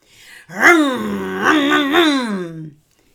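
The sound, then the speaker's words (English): A voice imitates a three-wheeler tricycle motorbike engine revving into a driveway, a loud, buzzing drone that swells upward in pitch twice before trailing off, with no other sounds around it. “we hear as it revs into the driveway.”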